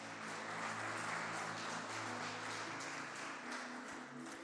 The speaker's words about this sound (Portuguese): E se tem aqui algum guerreiro aqui, comece a aplaudir ao Senhor bem alto. Aleluia!